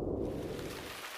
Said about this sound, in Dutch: Witte ruis is een constant achtergrondgeluid dat afleiding blokkeert. Het is het geluid van regen, kolkende golven en kletterende waterval.